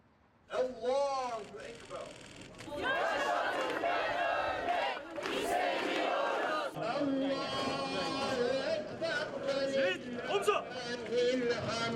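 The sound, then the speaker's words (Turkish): A large crowd at a health workers' protest chants and shouts together in unison, loud, the rhythmic voices rising into a sustained roar that continues through to the end. “Sağlık çalışanlarının protesto eylemine yurttaşlar da evlerinin pencere ve balkonlarından alkışlarla destek verdi.”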